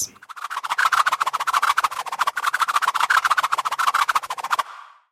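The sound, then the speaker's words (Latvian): A thrown boomerang whirs through the air, a fast, steady, fluttering pulse that stays loud for several seconds before it cuts off and trails away briefly. “Un jautājums, Kā sauc priekšmetu, kas atgriežas atpakaļ tajā vietā, no kuras tiek mests? Bumerangs.”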